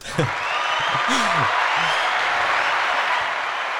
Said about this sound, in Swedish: Han får en applåd va? Uh, ja.